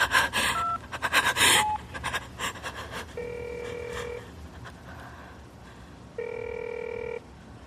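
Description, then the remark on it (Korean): A telephone ringback tone as a woman places a call that goes unanswered, sounding twice, each a steady, buzzy mid-pitched tone lasting about a second with a pause between, after a brief flurry of rustling, breathy noises at the start. “여자는 다시 전화를 걸었다.”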